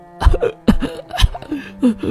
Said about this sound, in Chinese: …用力地咳嗽了几声。